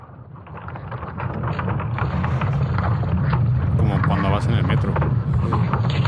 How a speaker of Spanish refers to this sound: lo que vamos a escuchar es el campo magnético de la Tierra, tal y como ha sido interpretado por la Universidad Técnica de Dinamarca.